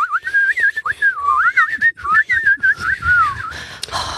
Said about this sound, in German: Kannst du auch beim Einatmen pfeifen? Ja, natürlich.